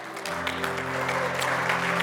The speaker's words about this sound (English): Can we take time to just praise Him? Give the Lord a clap offering this morning as you do that.